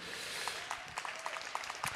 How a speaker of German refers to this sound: Haben eine weitere 8 und eine abschließende 8 und einen Applaus für Felix bitte.